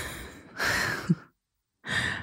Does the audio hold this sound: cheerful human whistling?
no